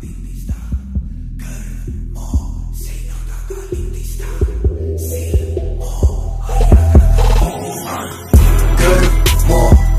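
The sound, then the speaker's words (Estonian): A rap song is played: a loud beat pounds away, heavy booming kick drums and deep bass thumping in a steady rhythm with crisp percussive hits layered on top, no vocals yet. “nii, vot paneme siia mängima sinu selle siukse üsnagi vulgaarse ja sellise konkreetse laulu”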